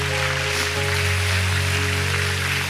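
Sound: audience applause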